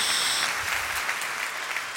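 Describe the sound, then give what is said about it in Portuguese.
A crowd at a Christian sermon claps steadily for two seconds in praise of God, a dense wash of many hands applauding together at a fairly even level, with no voices rising above it. “Quem já está recebendo aí, dá um salve de palmas, dá um glória a Deus aí, acorda aí, em nome de Jesus.”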